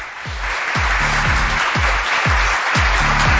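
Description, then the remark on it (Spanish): A steady wash of crowd applause, a sound effect played to applaud footballer Salomón Rondón, dense and fairly loud, with a thumping low beat pulsing underneath about twice a second. No one speaks. “no tenemos ahí uno, un efecto de unos aplausos, por favor, para aplaudir a nuestro queridísimo Salomón Rondón.”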